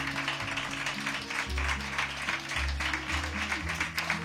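An audience at a novel presentation applauds, dense and steady clapping that holds at an even level for about four seconds, with low sustained tones humming underneath. No one speaks.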